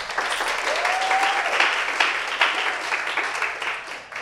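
A crowd applauds steadily for about four seconds, a dense wash of many hands clapping with scattered sharper claps, while a brief whistle-like tone rises over it early on.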